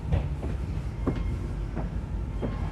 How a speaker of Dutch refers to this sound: Eh, de trein is ongeveer leeg. Er komt nu één iemand bij mij in de coupé zitten. Dat is chill.